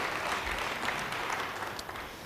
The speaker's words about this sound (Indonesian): Yang percaya beri tepuk tangan bagi dia. Haleluya.